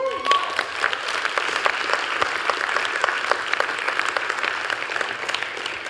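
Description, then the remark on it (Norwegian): Sustained audience applause for the worship singers fills the whole stretch, a dense, steady patter of many hands clapping at an even loudness, with a few sharper claps standing out now and then. “La oss gi dem en skikkelig klapp.”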